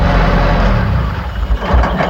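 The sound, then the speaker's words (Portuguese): A car engine hums steadily as a man calmly drives his car, a continuous low rumble that stays fairly loud and even for a couple of seconds, with no one talking over it. “E o homem vinha dirigindo seu carro tranquilamente quando foi surpreendido por um assaltante.”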